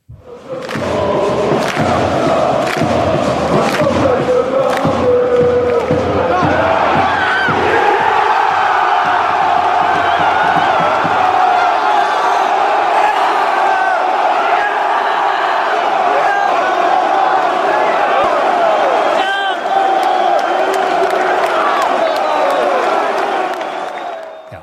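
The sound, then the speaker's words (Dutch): A large crowd of football supporters in a stadium chants and cheers loudly, with rhythmic thumping beats like stamping or drumming in the first few seconds, then a sustained roar of massed voices. “Het is de massaliteit, maar ook de individu.”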